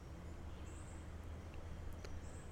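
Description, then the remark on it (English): Faint morning dawn chorus of wild birds, with a few thin high whistles and a brief chirp, drifting over a steady low outdoor rumble; no one speaks. “With a beautiful dawn chorus of birds accompanying him”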